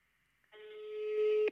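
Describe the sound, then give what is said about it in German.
A phone ringing over speakerphone after an outgoing call is dialled: one steady, slightly buzzy ring tone lasting about a second, growing louder before it cuts off sharply. No one speaks. “Klingelt.”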